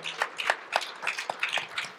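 Scattered applause from a small group at a ranch, welcoming the ranch owner who is hosting the event; quick irregular hand claps running steadily for a couple of seconds, fairly quiet and with no one speaking over it.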